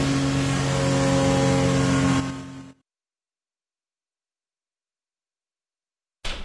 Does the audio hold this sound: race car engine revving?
yes